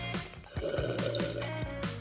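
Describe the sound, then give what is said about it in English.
Someone sips a bottled Aqua ViTea elderberry kombucha drink: about two seconds of wet slurping and gurgling, with a few soft gulps breaking up the steady airy liquid noise. Nobody speaks. “I'm drinking one on right now. Let's see if Hannah can guess what I'm sipping on.”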